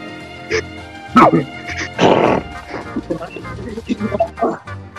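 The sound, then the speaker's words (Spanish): A pug barks in a few short, sharp bursts, with one longer, rougher bark in the middle, followed by softer yips and low background murmur. “Mi perro es un equipo, güey, se le un pug.”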